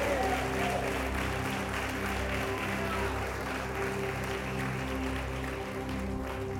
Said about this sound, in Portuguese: Eu vou aplaudir sozinho.